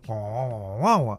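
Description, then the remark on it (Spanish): A single voice makes a wordless whiny grumble, a sustained nasal moan that swells into a higher, louder whine near the end before cutting off, imitating a complaint. “¿Escuchás cómo cuesta el rezongo.”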